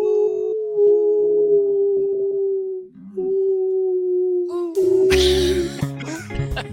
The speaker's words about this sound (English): Wolves!